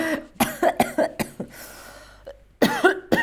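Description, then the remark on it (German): A loud coughing fit from a man who swallowed air: several harsh coughs in rapid succession, a short breathy pause, then another tight cluster of coughs. No talking. “und dann fange ich gerade an zu husten.”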